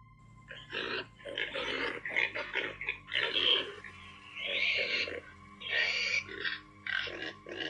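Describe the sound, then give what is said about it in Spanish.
A pig grunting, a series of rough, snorting bursts in an uneven rhythm, moderately loud and heard on its own without any talking. “Había un cerdo sentado, sonriéndome, en la cama.”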